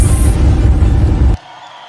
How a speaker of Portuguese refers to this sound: Glória a Deus. Aplauda mais forte ao Senhor Jesus. Aleluia. Glória a Deus.